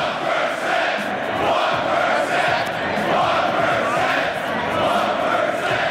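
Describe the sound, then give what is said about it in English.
At the final lottery party, a large crowd chants "1%" loudly in unison, a dense, sustained roar of many voices that holds steady for the whole stretch with slight rhythmic swells. “Um, let's do one more 1% chant before we end this.”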